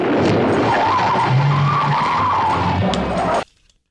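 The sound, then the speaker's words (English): A loud, sustained tire skid of the Batmobile making a bat turn screeches for about three and a half seconds with a wavering squeal over rumbling engine noise, then cuts off abruptly into silence. “oh, I lost the bat turn. Oh, there it is. Emergency bat turn.”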